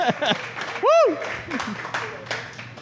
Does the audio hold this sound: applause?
yes